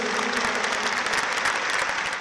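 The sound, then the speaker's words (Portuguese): A crowd claps steadily and loudly in a sustained round of applause for Jesus, a dense wash of hand claps with no voices standing out. “Uma salva de palmas bem forte para Jesus.”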